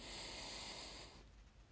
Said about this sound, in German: Und wir atmen ein wenig länger ein,